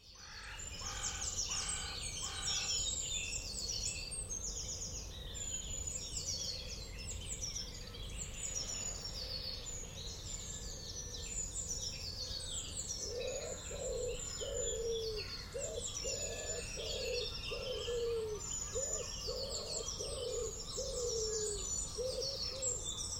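Steady outdoor ambience in a small patch of woodland in suburban Bristol, recorded with a Sennheiser AMBEO Smart headset plugged into an iPhone, filled with overlapping birdsong: bright chirps and trills high up, and a series of low hooting or cooing calls repeating in the middle, over a constant soft background hiss.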